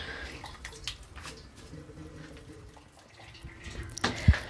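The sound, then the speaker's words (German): Liquid sloshes and swirls in a pot as malt grains are fished out of it, with small splashes and drips throughout and a sharper splash near the end. No one speaks. “Man muss ja jetzt auch nicht alles rausfischen.”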